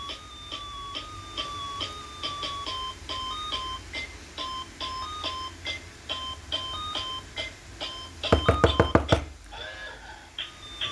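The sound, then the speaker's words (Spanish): An electronic doorbell rings over and over in a steady, insistent pattern, then a quick burst of about half a dozen loud knocks pounds on the door near the end. “abrí la puerta. Apúrate.”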